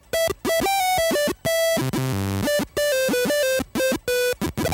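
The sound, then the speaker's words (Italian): Buzzy, harsh square-wave beeps from a personal computer's PC speaker play a quick stepping melody of short, abrupt notes with brief silent gaps, like old game music, loud and alone with no voices. “Per quanto riguarda le schede audio dei personal computer di allora, abbiamo suoni del speaker del PC”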